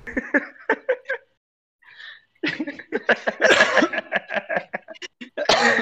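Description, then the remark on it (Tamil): A fit of loud coughing during a recording: a short series of rough bursts, a brief pause, then a longer run of hacking coughs that keep coming in quick succession until the end. “எப்படி எப்படி ஆரம்பிக்க போறோம் என்ன ஏதுன்னு ஒரு வார்ம் இல்லாம நீங்க பாட்டுக்கு ரெக்கார்ட் அப்படி சீட்டு இரும்பிட்டு வர இருக்கீங்க”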